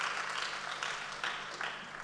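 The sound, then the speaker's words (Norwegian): An audience claps steadily, a dense crackle of many hands with a few swelling bursts, continuing throughout with no voices over it. “Det er ikke for at dere må klappe, altså.”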